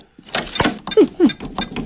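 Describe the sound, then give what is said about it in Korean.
A front door being worked open: a string of sharp mechanical clicks and rattles from the handle and lock, with two short, low squeaks dipping in pitch midway through. “이 소리는 분명 현관문을 여는 소리였습니다.”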